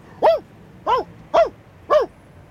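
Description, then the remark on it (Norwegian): A dog barks loudly four times in a steady rhythm, each sharp bark evenly spaced, with nothing else audible between them. “Jeg bjeffet voldsomt.”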